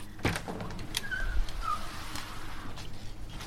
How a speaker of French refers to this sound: Du coup il y a un sas pour rentrer. Donc quand je vais ouvrir la porte ça fait un petit peu de bruit.